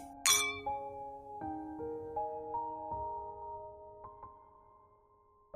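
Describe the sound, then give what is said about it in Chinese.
Glasses clink together in a toast: a bright, sharp chime followed by several lighter taps, each leaving a sustained ringing tone that slowly fades. No one speaks. “我觉得我们是值得为这件事情干杯的。”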